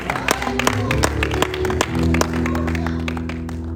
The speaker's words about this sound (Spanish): Dame un fuerte aplauso al Señor.